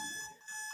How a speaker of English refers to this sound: That is my alarm sound, right? Like that's uh, most people's alarm sound. It is an awful sound.